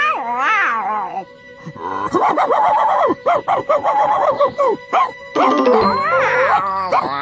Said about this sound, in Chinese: 另外，他总喜欢追兔子，并且朝着羊群狂吠，所以我需要你帮我做一个带狗窝的笼子，这样他一个人的时候可以在里面跑动。